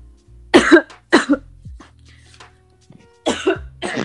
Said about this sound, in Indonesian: Gue ya, ya batuk